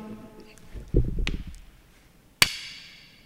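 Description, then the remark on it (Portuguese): A small magnet snaps onto a meteorite with a single sharp metallic clack that rings briefly, after a second of soft fumbling and handling noises. “Isto é o som do imã a colar, literalmente.”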